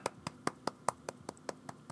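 A steady run of about ten sharp hand claps, evenly spaced at a quick, regular beat, with no talking over them.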